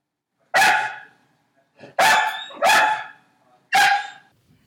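A dog barks four times, loud, in sharp bursts with uneven gaps between them. The barks are full-throated against an otherwise quiet background with no talking.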